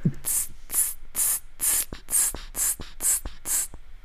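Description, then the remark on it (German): A voice imitates a snare drum with a steady beatbox rhythm: about nine sharp, hissy bursts at an even pace, with soft clicks between them, fairly loud. “Also wir machen so Schlagzeuginstrumente nach, so Snare Drum und so.”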